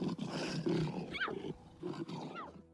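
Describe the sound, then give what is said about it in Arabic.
A lioness growls loudly in two rough bursts, each rising into a strained, whining cry before fading, as she play-fights with her cub and pretends the cub is hurting her, with no voices present. “وبشكل واضح نقول أن اللبؤة تتظاهر أن الشبل يؤذيها وتصدر أصوات تنم عن الألم لإعطاء الصغير الفرصة لخوض تجربة كاملة وكأنه يصطاد فريسة”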